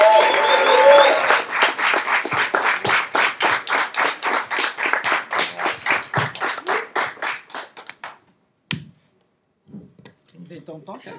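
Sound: audience applause and clapping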